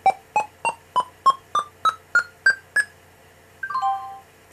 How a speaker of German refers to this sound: Und dieses Endsignal, das hört man auch, wenn man nicht in der Anwendung ist. Deswegen kann man es einfach getrost zumachen und hört man dann, wenn es fertig ist.